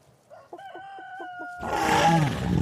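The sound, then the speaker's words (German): A rooster crows, a few choppy notes rising into a long, steady call, then it turns abruptly into a loud, rough, roaring rumble. No one speaks. “Ja genau, das Huhn ist genetisch dem Raubsaurier Tyrannosaurus rex am nächsten.”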